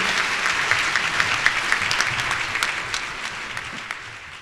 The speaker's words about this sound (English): Well, how about another round of applause for all our 2018 best places to work?